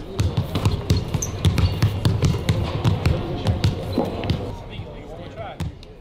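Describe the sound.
Basketball players warming up before an NBA game in the Denver Nuggets' arena: many balls bounce at once in quick, overlapping thuds, with squeaks and a busy murmur of voices of journalists and staff at courtside echoing underneath. Recorded by CBS Denver.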